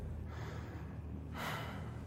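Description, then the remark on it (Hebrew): A single heavy, drawn-out breath rises out of a low steady rumble, heard from the left, fairly quiet, sounding slow and laboured, with no talking. “אני שומע מאוזן שמאל שלי נשימות כבדות ואיטיות.”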